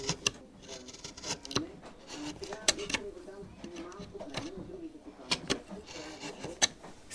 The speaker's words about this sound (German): schnitzt seine Ikonenwand für eine Dorfkirche.